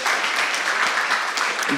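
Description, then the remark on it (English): Church audience applause during a morning sermon: a dense, steady wash of many hands clapping, fairly loud and sustained for the whole moment, with no voices over it. “I didn't get a clap on that one, so I don't know what's going on.”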